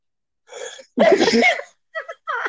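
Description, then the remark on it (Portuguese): A loud sneeze from a person with allergies: a short breathy intake, then a sharp burst, followed by a couple of smaller sniffly exhalations. No one speaks. “Opa, saúde!”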